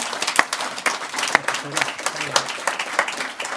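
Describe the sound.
An audience breaks into sustained applause for the panel speakers, a dense patter of many hands clapping at a steady level with a few sharper individual claps standing out, and faint voices mixed in underneath.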